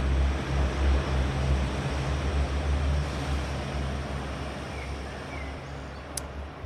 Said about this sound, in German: jetzt kommt der Zug.